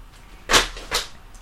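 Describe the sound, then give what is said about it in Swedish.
Two soft, rustling thuds in quick succession as sheets of paper notes about the film Jaws 4 (Hajen 4) fall onto the floor, with a brief papery crackle and no voices. “Det var ljudet av mina anteckningar från Hajen 4 som föll i golvet.”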